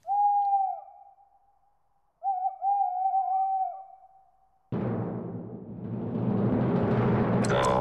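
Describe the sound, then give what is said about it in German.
An owl hoots twice, a short steady hoot and then a longer wavering one, clear. A sudden burst of dense rushing noise then fills the rest. “die letzte Vogelstimme war es. Genau, das war die Eule.”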